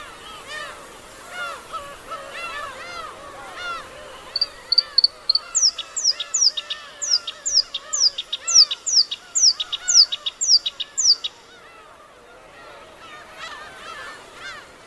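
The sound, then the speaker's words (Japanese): A black-browed reed warbler sings in grassland on Teuri Island, northern Hokkaido, Japan: a fast, chattering song of varied scratchy phrases, then a run of about a dozen evenly spaced high, sharp notes, against a background of other birds. “天売島（北海道）のコヨシキリをお届けします。”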